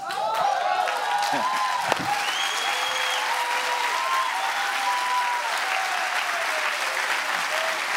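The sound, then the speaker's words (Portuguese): A large crowd claps hands continuously for several seconds, a dense, steady wash of applause with some cheering voices and shouts mixed in, fairly loud throughout. “Diz a Bíblia: batei palmas todos os povos.”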